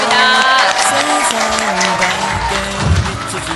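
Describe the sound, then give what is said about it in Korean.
An audience claps loudly and steadily for a few seconds, a dense crackle of many hands, with some tonal, music-like sound running underneath. The applause is for lawmaker Lee Jae-jung, who took part in the event. “자 오늘 함께해 주신 이재정 의원님께 큰 박수 부탁드리겠습니다.”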